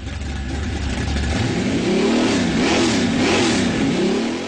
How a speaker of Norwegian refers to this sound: Hører du kjerra mi i bakgrunnen? En 57-modell Chevy 350 fra Halden. En rå V8-er med høy lyd og høyt bensinforbruk.